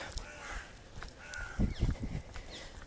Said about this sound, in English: That's the crows above me in the trees.